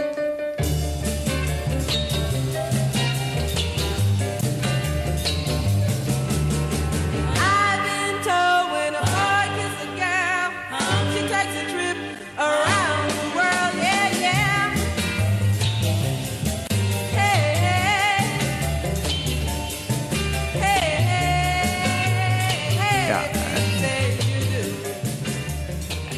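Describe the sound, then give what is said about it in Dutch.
A bossa nova-flavoured girl-group pop song plays continuously, with harmonised singing over bass and drums, a steady, ticking cymbal pattern keeping time throughout, full. “het is een beetje bossa nova-achtig. Hè? Eh, de, drums klinken bijna een beetje als …”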